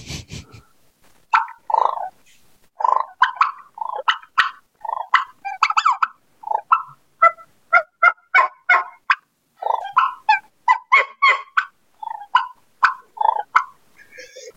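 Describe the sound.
Imitated turkey calls: soft clucks, a rolling purr, a whine and yelps, delivered as a steady series of short, mid-pitched notes with brief gaps and no talking.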